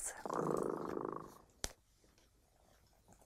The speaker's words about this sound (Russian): Слышите? Кот Дремота запел свою песенку. Это значит, что пора засыпать.